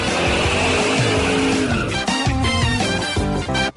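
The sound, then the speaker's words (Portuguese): A short, loud jingle for the Band Motores segment on BandNews radio, built from car sounds: a revving engine and squealing, skidding tires swell into a rhythmic musical sting over about four seconds, with no talking. “11 h 56 roda a vinheta do homem.”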